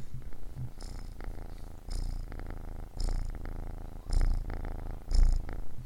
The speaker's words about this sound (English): And oh, the cat's all purring up a storm here. I don't know if you, you can, can hear her.